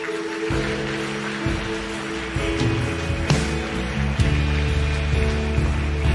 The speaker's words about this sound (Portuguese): Todos salvos, dê um forte aplauso a Jesus.